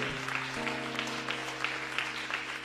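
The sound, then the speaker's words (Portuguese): An audience applauds the Lord in worship with dense, continuous clapping at a steady moderate level, while a sustained instrumental chord hums underneath throughout. “Você pode aplaudir o Senhor, você pode louvar o nome dele.”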